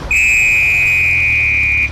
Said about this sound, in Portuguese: A gente às vezes quando quer hum, avisar alguém ou repreender alguém podemos apitar um bocadinho com mais força.